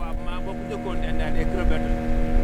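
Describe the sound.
A motorboat engine drones steadily with a low, even hum throughout, while someone talks over it. The boat is out on tidal flats, and a bare mudflat is being observed from it.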